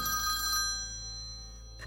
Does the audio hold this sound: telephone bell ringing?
yes